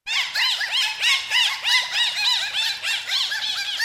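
Dolphin signature whistles: a steady stream of high, rising-and-falling squeaky whistles, several overlapping and repeating in quick succession for about four seconds, fairly loud, with no voices.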